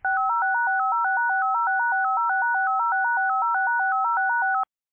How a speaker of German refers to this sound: Die Geschwindigkeit, mit der das geschieht, wird Schritttakt genannt, auch als Bodred bekannt. Ein Schritttakt von 8 hört sich zum Beispiel so an.